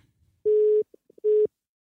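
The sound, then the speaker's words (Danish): Two short, steady telephone ringback beeps, each a single flat mid-pitched tone lasting about a third of a second, separated by a brief pause with faint clicks, heard clearly with no talking. “vi prøver igen at ringe til Rasmus Horn Langhoff en uge efter han lovede at svare”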